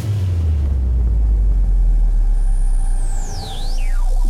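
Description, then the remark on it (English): A heavy, continuous low rumble like a spacecraft lifting off, with a high whistling tone that sweeps down sharply near the end over the steady roar. “locking down the main bridge. Prepare for takeoff. Three, two, one.”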